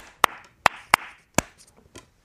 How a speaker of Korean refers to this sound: 아, 좋습니다. 네. 박수까지 이렇게 만나 봤습니다.